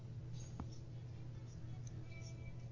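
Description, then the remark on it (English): A single soft, brief computer mouse click as someone clicks on a link, over a steady low electrical hum. “I'm clicking on the link.”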